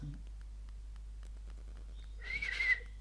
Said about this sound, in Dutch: ik ben benieuwd of je de vogeltjes hoort als we zo stil